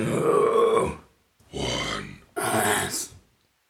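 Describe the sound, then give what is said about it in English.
A voice attempts a harsh, guttural death metal growl in three rough bursts, the first longest, each raspy, with brief pauses between. “can you like, do like a growl?”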